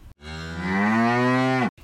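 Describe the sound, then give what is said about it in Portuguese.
A single long, loud cow moo, steady for over a second before cutting off, with no talking. “Dona Vaca disse:”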